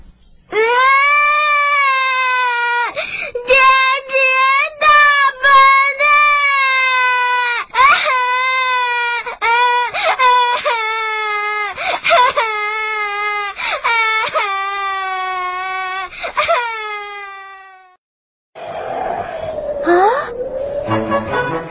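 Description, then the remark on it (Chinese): A young girl, the character Xiaomi, wails loudly and continuously as she runs off meaning to walk to the hospital to see her mother, long high-pitched sobbing cries broken by short gasping breaths, ending abruptly before a brief stretch of different, quieter sound. “小米大哭着跑开，想自己走到医院看望妈妈，却迷路了。”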